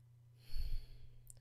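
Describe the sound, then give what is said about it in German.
A soft breath, a brief sighing exhale of air as someone breathes in and out a few short times, heard alone and quiet with no talking around it. “Ähm, um das so zu trainieren, stellst du dich einfach gerade an, auf deine Füße, machst deine Augen zu, schnaufst vielleicht zwei, dreimal kurz ein und aus”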